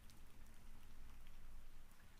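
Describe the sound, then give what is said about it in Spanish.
Soft, steady rain falls continuously, a gentle hiss of fine drops with a low rumble beneath, even in volume throughout and with no voices. “Y lentamente con los segundos empezaremos a escuchar una leve, leve lluvia.”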